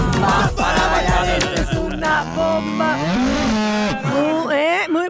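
A cow moos loudly, a long drawn-out bellow with wavering pitch that rises and falls across several seconds, with no talking over it.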